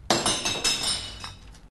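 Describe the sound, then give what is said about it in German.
A drinking glass, dropped in a dark kitchen shortly after 1 a.m., smashes on a hard tile floor with a sharp crash, followed by a brief scatter of tinkling, clinking shards that quickly dies away. Loud, with no voices. “Sekunden später zerbrach das Glas auf den Fliesen.”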